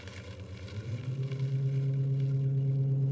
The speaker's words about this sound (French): Je conduis mon camion, un camion Ben.